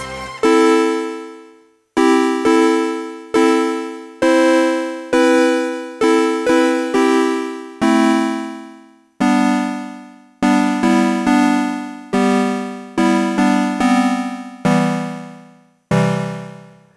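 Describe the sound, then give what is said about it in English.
A bright, buzzy sawtooth synthesizer plays a melody of short notes, each starting sharply and fading quickly, with brief gaps between phrases. The tone is loud, with no voices. “A sawtooth wave works like a shifted triangle so the voltage needs a longer way up than down.”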